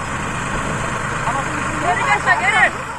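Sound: tractor engine running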